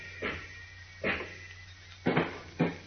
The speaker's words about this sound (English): Wait. Listen, what's that? Sounds like pounding on your front door.